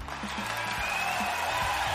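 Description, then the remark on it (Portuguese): A crowd claps steadily for a couple of seconds to welcome a guest on a show, a dense, even patter of many hands at a moderate, constant level, with faint murmuring voices underneath. “Uma salva de palmas para o professor Márcio.”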